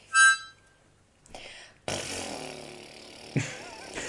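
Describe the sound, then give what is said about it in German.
A short, squeaky fart noise bursts out first, followed by a longer, rougher blatting stretch with a brief sharp pop near the end. It's moderately loud. “das ist bestimmt gut pupsen zu können, das sind dann After Effects”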